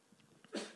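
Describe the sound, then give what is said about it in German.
A single sudden sneeze bursts out after a moment of near-quiet, sharp at first and then trailing off quickly. “Gesundheit”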